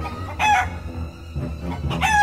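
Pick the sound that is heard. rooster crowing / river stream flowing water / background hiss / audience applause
rooster crowing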